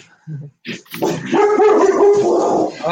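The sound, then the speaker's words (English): A male dog barks, a couple of short yips followed by a long, drawn-out, wavering bark that almost turns into a howl, loud and with no talking over it. “and my dog agrees.”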